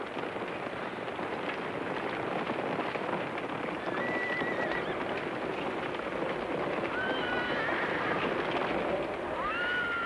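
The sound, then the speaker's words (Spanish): A dense clatter of many hooves clip-clopping continuously, with several horses neighing and whinnying over it, clearest near the middle and toward the end, on an estancia in Río Grande, Magallanes. No one speaks. “Sin embargo, está presente un oficio importante y tradicional en la vida estanciera, el campañista o encargado de los caballos.”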